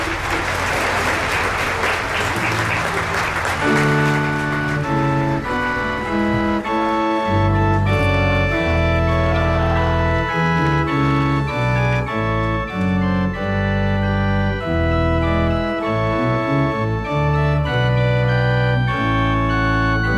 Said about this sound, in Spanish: Y ahora nos preparamos a recibir la bendición con el Santísimo vivas surgen espontáneos, los presentes no están preparados, pero bueno, en este momento pues no se puede contener la emoción y sale pues en estos gritos, en este fuerte aplauso.